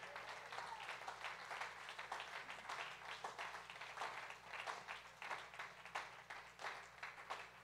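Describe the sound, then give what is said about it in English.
An audience at an evening church service claps their hands together in praise of the Lord, in sustained, dense applause, many overlapping claps forming a steady crackling wash that holds at an even level for several seconds. “Can we give the Lord a hand clap of praise here tonight?”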